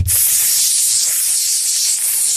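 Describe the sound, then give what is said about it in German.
A voice imitates the steady, loud spraying hiss of champagne being sprayed back and forth between people in a venue, holding a bright, noisy rush for about two seconds without a break. “und irgendwer hat angefangen zu spritzen mit diesem Champagner.”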